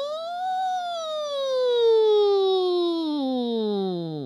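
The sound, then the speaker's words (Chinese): A toy fire truck siren sounds a single buzzy electronic wail that rises briefly, then slides steadily downward in pitch over about four seconds, fairly loud and with no talking. “这时，玩具消防车上的警笛突然响了起来，但不一会儿又安静下来。”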